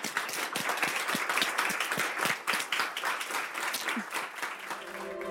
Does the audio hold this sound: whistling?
no